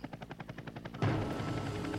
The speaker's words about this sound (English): Start with the helicopter.